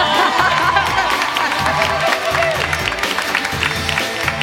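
An audience applauds steadily, a dense wash of clapping hands with some cheering and crowd murmur mixed in, holding at an even, fairly loud level throughout.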